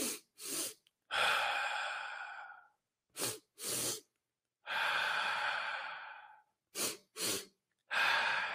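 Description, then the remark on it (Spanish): Three rounds of a breathing technique taken from Dr. Huberman: two quick, sharp inhales through the nose followed by one long, drawn-out exhale, clear with no talking. “Es dos inhalaciones por una exhalación.”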